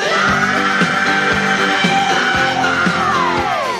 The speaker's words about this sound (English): I sang it completely different, changed a few words, and I put that scream in, and the scream wasn't there. I just went.